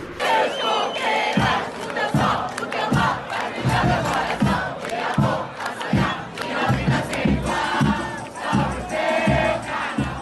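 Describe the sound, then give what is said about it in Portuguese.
A large crowd shouts and roars together in a loud, sustained wave as the anthem of the carnival club Elefante plays, music with a steady, thumping low beat, the collective yelling swelling and dipping throughout. “E quando toca elefante, todo mundo dá aquele grito.”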